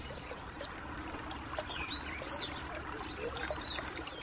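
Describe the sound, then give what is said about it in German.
A babbling brook flows steadily with a soft, continuous trickling and splashing, while a few faint bird chirps come through over the water. “Wir gehen zum Bach, da kannst du deine Pfote kühlen.”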